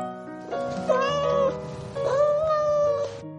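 A cat meows twice, each call a drawn-out, wavering cry lasting about a second, separated by a brief pause, with no voices present.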